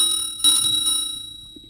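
A shop door bell rings with a bright metallic tone as the shop door is opened, struck again partway through and left to ring on insistently, slowly fading. Fairly loud, with no voices.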